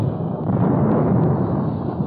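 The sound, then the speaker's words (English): A barrage of big guns from the battleship Missouri and other ships of the UN Armada firing at the hills above the beach at Hungnam, North Korea, heard as a loud, continuous low rumble of overlapping booms with no clear gaps between blasts. No one speaks. “As the Missouri pounded away at the hills above the beach, other big guns of the UN Armada joined the barrage as the Navy sent its carrier based Corsair planes in to attack the enemy guns in the ridges.”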